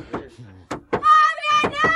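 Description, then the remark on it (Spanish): Mary Magdalene knocks heavily on a wooden cellar door several times in uneven bursts, loud, while a raised voice calls out briefly between them. “Corre y ábrele la puerta.”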